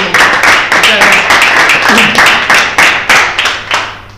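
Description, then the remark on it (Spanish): A small group claps steadily to thank a guest for coming and sharing: a quick run of sharp, bright hand claps in a loose rhythm, loud and sustained across the whole stretch with faint murmuring voices underneath. “Así que, bueno, agradecerte y darte un aplauso”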